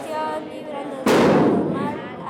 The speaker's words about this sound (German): Die Jungs aus der Nachbarschaft lassen Feuerwerkskörper in die Luft steigen.